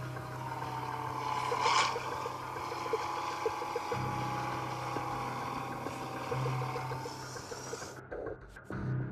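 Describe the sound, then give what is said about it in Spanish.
An approaching car's engine rumbles with a steady, droning hum that holds at a fairly constant level, then cuts off briefly near the end. No one speaks. “Estando ya afuera de la casa, ven de lejos que se acerca un auto.”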